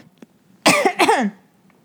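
Two loud, harsh coughs in quick succession, each a broad burst with a raspy, slightly voiced tail, the second a bit longer, with near silence before and after.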